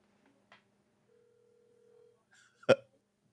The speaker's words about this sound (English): If he picks up this phone, bro, I'm telling you. Is that hello? Who's this? It's ringing. Is it ringing?